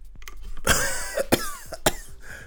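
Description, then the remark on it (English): Three harsh, hacking coughs in quick succession after a hit from a bong, fairly loud, the first one long and raspy, with short gasping breaths between them and no talking. “cough, letting out a huge burst of smoke as soon as it goes into your lungs.”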